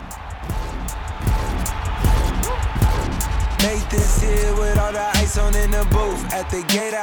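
Loud music from an in-game virtual concert, with deep booming bass hits and sharp transients, swelling into dense sustained synth tones halfway through, thick and close throughout.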